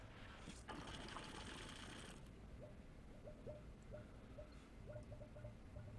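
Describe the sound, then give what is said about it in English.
A burst of steady hissing noise, then a series of short, bubbly bloops from a water pipe, repeating irregularly over a low mechanical hum. No one speaks. “however you made your pipe bloop”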